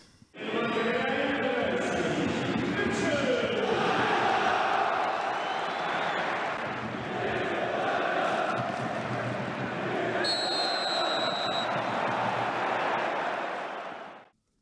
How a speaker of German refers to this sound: Das war damals das ähm, Spiel gegen Bayer Leverkusen. Es stand mhm. zu dem Zeitpunkt 0-2. Mhm. Du bist reingekommen und die Fans haben dich gefeiert.